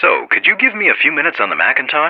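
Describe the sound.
A man speaks over the phone in an interview, his voice thin and band-limited, boxy and tinny with no low bass or crisp highs, talking steadily at even loudness.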